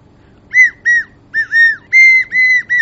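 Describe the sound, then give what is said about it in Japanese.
A small, transparent recorder-shaped ballpoint pen is blown like a toy recorder in seven short, shrill piping notes, each a bright whistle-like tone with a slight pitch bend, with brief gaps between them and no talking. “リコーダー、小さいリコーダーの形をしたボールペンがあったんです。”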